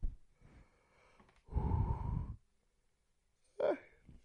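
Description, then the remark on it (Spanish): A single drawn-out, breathy yawn lasting about a second, followed after a pause by a brief sharp exhale. “Perdonad otra vez bostezo.”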